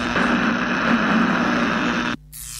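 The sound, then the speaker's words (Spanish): A stock electricity sound effect: a loud, steady electrical buzz with a strong low hum and harsh crackling static spanning the highs, holding for about two seconds before cutting off abruptly into a quieter hiss. “ese sonido de stock de electricidad, sí.”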